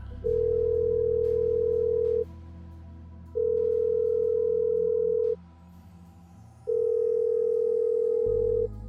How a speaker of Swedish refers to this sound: Vem ringer du till, Bruce? Samantha. Det går några signaler.